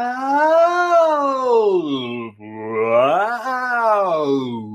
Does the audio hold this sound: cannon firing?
no